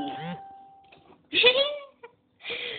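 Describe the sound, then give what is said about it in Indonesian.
A short, steady electronic chime tone from a phone, signalling an incoming order, rings for about a second beneath people talking, fairly faint, followed by more speech. “Ih, ini pesanan masuk nih.”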